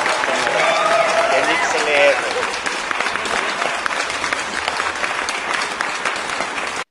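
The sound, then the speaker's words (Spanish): A sustained burst of audience applause for the groups Leones Negros and Atletas Campesinos, loud and dense from many hands, with a voice carrying over the clapping at the start before the crowd settles into steady clapping. “Aplausos para Leones Negros y Atletas Campesinos.”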